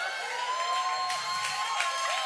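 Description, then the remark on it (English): An audience erupts in shouting and cheering during a sermon, a dense, steady wash of raised voices with a few louder whoops rising out of it, sustained for a couple of seconds. “She she shouted though.”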